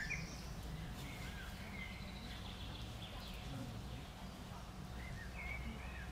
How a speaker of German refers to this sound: Und wie man hoffentlich hören kann, sind hier sehr viele Vögel, die hier zwitschern.